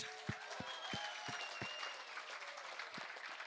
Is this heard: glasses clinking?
no